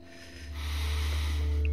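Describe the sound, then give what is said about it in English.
A slow, deep inhalation swells steadily over about two seconds, airy, over a low sustained hum, with no talking. The breath is taken during a singing-bowl relaxation session. “So, breathing in”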